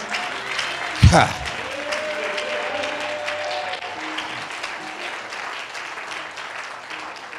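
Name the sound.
audience clapping hands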